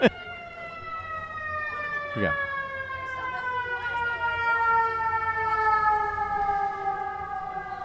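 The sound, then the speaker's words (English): Fire engine sirens wail continuously and fairly loud, their pitch slowly sliding downward as they pass, with a brief sharp whoop partway through. A person briefly speaks and laughs at the start. “We don't have any trains for you this time, but we got some fire engines.”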